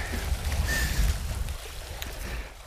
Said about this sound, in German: Auf die Plätze, fertig, los. Er springt ins Wasser. Was war das denn für ein Körper? Mit den Füßen vorweg. Er schwimmt die erste Bahn.